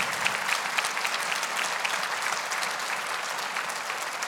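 An audience applauds steadily, a dense wash of many hands clapping at once, sustained and even for several seconds with no one speaking over it.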